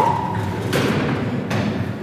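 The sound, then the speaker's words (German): A large, heavy silver walk-in freezer door, kept at minus 21 degrees, swings open with a solid thud, followed by a second clunk a moment later, over a steady low hum. “große silberne Tür geht auf. Minus 21 Grad.”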